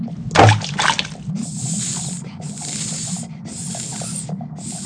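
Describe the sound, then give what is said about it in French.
A snake hisses in several long, steady bursts separated by short pauses, following a brief rustling sound at the start, over a low bubbling background. “Dis-nous, sorcier qu'est-ce qu'on met maintenant dans la marmite On va mettre un serpent.”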